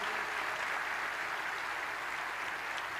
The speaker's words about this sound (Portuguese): Vamos aplaudir Jesus pela vida dessas pessoas.